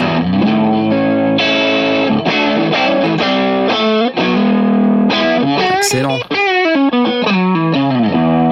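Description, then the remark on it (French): A Blackguard Telecaster electric guitar played with light distortion, loud, bright strummed chords and quick riffs ringing out steadily; a voice briefly speaks a single word over the playing. “c'est la Blackguard Telecaster, avec un peu de disto.”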